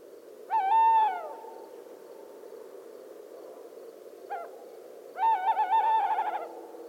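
A tawny owl hoots: a long, steady hoo, a short clipped note after a pause, then a drawn-out wavering, tremulous hoot, all clear over faint background hiss with no talking.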